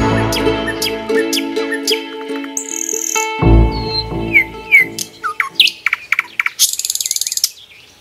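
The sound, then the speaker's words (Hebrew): Several blackbirds whistle and sing in a lively chorus, with rich fluting phrases, quick chirps and a rapid trill near the end, clear with no talking. “יש פה המון שחרורים, שחרורים יש להם אה, שריקות חבל על הזמן, קונצרט.”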